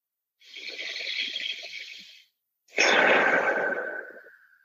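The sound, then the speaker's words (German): Two long, slow, conscious breaths taken as meditation: a drawn-out airy inhale lasting nearly two seconds, a brief pause, then a fuller, sighing exhale that gradually fades. “Einfach bewusst atmen und das Leben spüren und dankbar sein, dass du lebst und dass alles funktioniert.”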